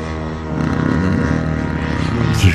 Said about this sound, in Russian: Еще раз, вот звук пролета, и вот оно летит. Он даже мигает, у него даже какая-то проблесковая эта штучка есть.